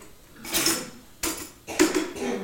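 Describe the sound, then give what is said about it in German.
Three sharp crashes of drinking glasses being deliberately smashed, each a bright burst of shattering followed by a short tinkling tail of shards, spaced unevenly with brief quiet gaps between. “Ja, hier die Gläser zerstört, um euch wach zu bekommen und euch wach zu halten zum symbolisieren, hey,”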